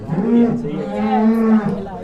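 A cow moos once in a long, loud, sustained low call lasting about two seconds, heard on its own.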